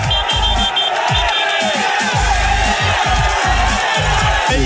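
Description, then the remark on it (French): A dense roadside crowd of cycling fans, supporters of Thibaut Pinot, cheering and shouting continuously on a climb toward the summit as he rides up to them, loud and sustained, with rhythmic low thumps pulsing through the roar and high whistles or horn tones cutting in. “Et là encore une fois, énormément de monde. C'est la foule des grands jours.”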